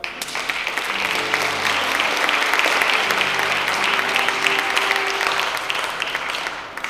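Sustained applause from an audience, a dense patter of many hands clapping at once, steady and fairly loud for several seconds before tapering off at the end.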